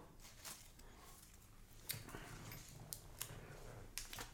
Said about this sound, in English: Well, time for uh, shaking the question hat. Mm, shake it up.